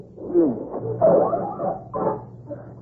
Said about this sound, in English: Wolves! Wolves! And they're closing in.